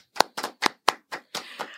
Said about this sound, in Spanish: Totalmente, y un aplauso para todo el mundo, que es que, por favor. Un aplauso.